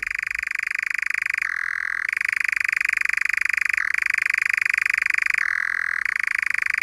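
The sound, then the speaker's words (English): A nightjar churring: an unbroken, rapid mechanical trill that runs throughout, dipping briefly in pitch a few times before resuming, fairly loud and clear with no voices. “I don't think they breed here, but on passage they occur here and their churring sounds as they sing and, and flit around catching moths can be heard occasionally.”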